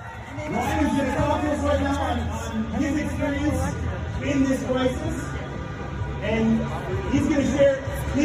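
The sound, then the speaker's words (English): A large protest crowd chants and shouts together in steady rhythmic bursts, loud and continuous, with overlapping calls rising and falling throughout. “Let me tell you, if you've if you've seen any going around on the internet, if you can listen to the chants here, do you hear any any people shouting in German?”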